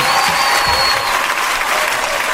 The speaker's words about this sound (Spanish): Y para ti, un aplauso. Y para …, pues también.